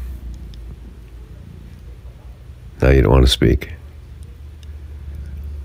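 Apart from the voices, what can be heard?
cat purring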